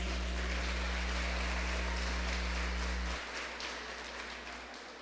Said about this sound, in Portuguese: Salva de palmas para Jesus.